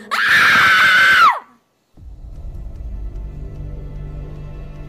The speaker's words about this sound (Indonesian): Lalu, tiba-tiba saja sebuah teriakan melengking seperti kesakitan keluar begitu saja dari mulutku.